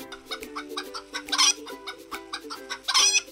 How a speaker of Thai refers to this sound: ก็น่าจะมาจากเสียงร้องของไก่นะคะ ที่ไก่จะร้องทันทีที่พระอาทิตย์ขึ้น